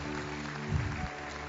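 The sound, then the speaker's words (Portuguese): An audience applauding to God, a dense, steady wash of clapping that swells briefly midway, with a low sustained musical tone humming underneath throughout. “Aplaude a Deus, aplaude.”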